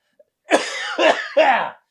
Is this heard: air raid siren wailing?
no